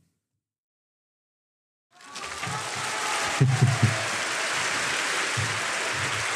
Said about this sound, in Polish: Don, don, czekaj, ja mam tutaj taki brawa.